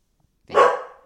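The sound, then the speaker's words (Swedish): A single sharp dog bark rings out, loud and sudden, then fades quickly into silence. No one speaks. The dog is barking at a woman with a walker outside. “Hon, hon börjar inte gå utan rullator bara för att du skäller på henne.”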